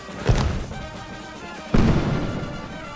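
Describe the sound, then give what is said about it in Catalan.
Two loud, booming bangs from warning rockets before a fireworks display, about a second and a half apart, each ringing out with a rumbling echo over steady crowd noise. “Sona el tercer avís”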